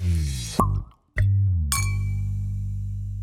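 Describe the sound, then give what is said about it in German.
Glasses clink together, a few sharp taps, the last one ringing out with a clear, lingering tone over a low steady background. “Gib mal Glas.”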